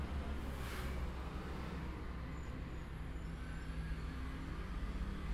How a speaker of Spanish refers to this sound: Y desde acá registramos unos 50 decibeles cuando el tránsito no pasa por la la avenida a la que da el ventanal, sino por la otra. 53 decibeles. Veremos qué pasa cuando da el verde para la avenida Corrientes.